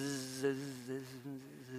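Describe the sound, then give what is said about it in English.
A person imitates with their voice a low, steady buzz heard at their house, holding a droning hum for almost two seconds with slight wavers in pitch. “It was this low level buzz.”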